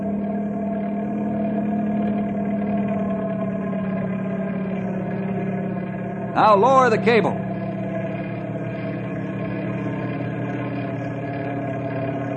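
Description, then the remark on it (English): A helicopter engine hovers with a steady, unbroken drone, a low rumble layered with humming tones throughout, as the pilot brings it down over a raft; a man briefly speaks over it partway through. “A pilot, bring the copter down over the raft as close as you can.”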